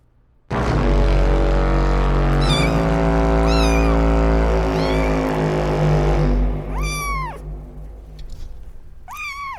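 kitten meowing

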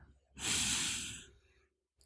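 deep breath in

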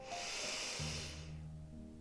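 deep inhalation

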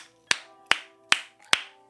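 clapping

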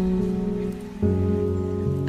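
rain falling

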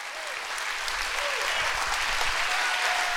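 audience clapping hands

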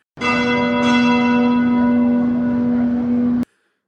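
church bells ringing

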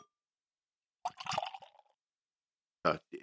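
beer poured

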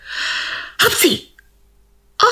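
sneeze

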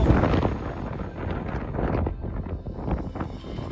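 wind blowing

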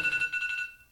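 alarm clock ringing

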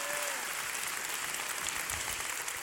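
audience clapping hands

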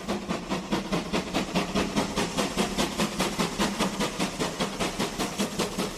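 steam train

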